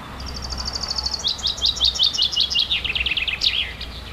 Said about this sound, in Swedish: Ute sjunger fåglarna och Kekkonen, Finland, förbereder sig för att fira midsommar.